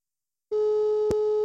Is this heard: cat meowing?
no